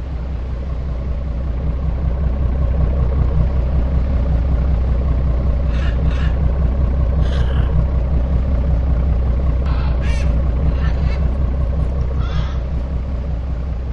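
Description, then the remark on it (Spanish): A boat engine drones steadily and monotonously on a boat in drifting fog, a constant low rumble with unchanging loudness throughout, joined by a few faint, brief higher-pitched creaks or clicks partway through. “Escucha el monótono ruido del motor y finalmente se duerme.”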